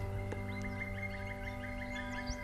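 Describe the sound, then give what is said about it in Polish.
A black woodpecker calls in a quick series of repeated notes, mixed with other bird chirps over a steady low hum of forest background. “W tym momencie śpiewa właśnie dzięcioł czarny.”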